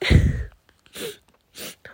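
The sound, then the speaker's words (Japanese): Tearful sniffling: a shaky, wet outburst of breath followed by two sharp nasal sniffs spaced apart, with quiet pauses between and no talking. “泣いてごめんなさい”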